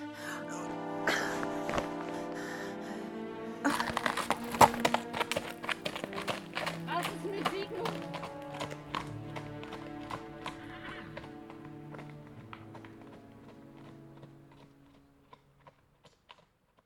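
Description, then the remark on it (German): Horse hooves clip-clop in a steady, regular rhythm, with a horse neighing over them, while layered sustained tones and other sounds fill the background before fading near the end. “Komm auf mein Pferd. Ich rette dich.”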